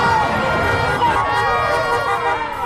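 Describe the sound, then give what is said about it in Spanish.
A crowd of thousands in the Honduran capital cheers and shouts as Xiomara Castro arrives to give thanks to the Virgin of Suyapa, hours before her inauguration as president of Honduras; a dense, continuous, loud roar of overlapping voices, with no single speaker standing out. “Horas antes de ser investida como presidenta de Honduras, Xiomara Castro llegó en medio de la algarabía de miles de personas a darle gracias a la Virgen de Suyapa, patrona de los hondureños.”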